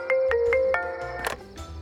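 A mobile phone ringtone plays nearby: a quick run of bright electronic notes, four short tones then a longer held one, fairly loud, with no one talking over it.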